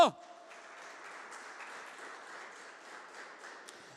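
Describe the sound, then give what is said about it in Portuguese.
An audience applauds Jesus steadily for several seconds, a dense wash of many hands clapping at an even level after a sharp opening burst, with no clear speech over it. “Aplauda Jesus bem alto.”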